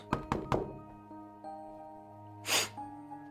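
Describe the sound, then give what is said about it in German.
Three soft knocks on a door in quick, even succession, followed by a quiet sustained tonal hum and a brief breathy rush near the end. “Ähm, ich klopfe behutsam an die Tür.”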